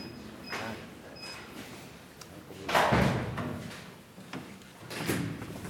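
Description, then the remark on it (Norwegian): A heavy wrought-iron cellar door in the basement under the Historisk museum at Tullinløkka, Oslo, swings open and shut with broad scraping and thudding bursts, followed by a softer second clunk, set against a quiet, echoing space. “Flotte dører og smijern og det hele. Vi går inn her.”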